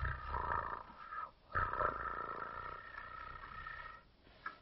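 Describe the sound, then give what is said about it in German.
A human voice imitates a cat's purr during a cat-pose stretching exercise, a steady, throaty rumble held in two long stretches with a short breath between and a brief pause near the end. “Und wenn du magst, dann kannst du auch ein bisschen schnurren.”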